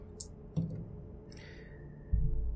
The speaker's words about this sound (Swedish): vilket innebär att du spenderar en bestående förlust i en egenskap och sen slår du två tärningar och lägger till ett på det.